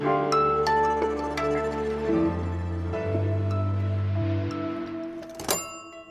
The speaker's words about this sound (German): Dieses Geräusch haben Sie jetzt vorhin schon gehört, diese alte Stechuhr, mit der damals An- und Abwesenheiten dokumentiert wurden.